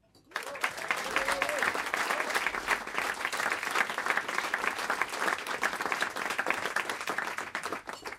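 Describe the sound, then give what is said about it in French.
Sustained audience applause at a concert for the band's pianist, a dense wash of many hands clapping that starts abruptly and holds steady at a strong level for several seconds, with a brief voice faintly audible at the start. “Tout d'abord, euh, merci d'applaudir au piano”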